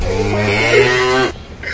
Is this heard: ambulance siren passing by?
no